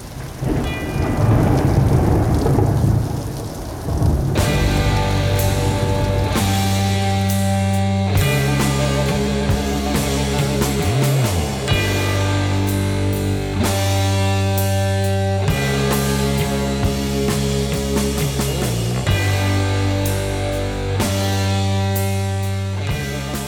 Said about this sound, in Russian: Ну, я думаю, вы ощутили эту жутковатую атмосферу, особенно если вы это слышите в первый раз, еще этот колокол где-то на заднем плане.